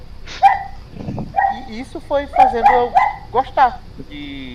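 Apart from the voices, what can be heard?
dog barking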